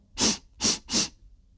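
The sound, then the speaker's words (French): A bull sniffs two children to learn their scent: three loud, breathy snorts in quick, even succession, each a short hissing rush of air, followed by silence with no talking. “Il renifla les enfants”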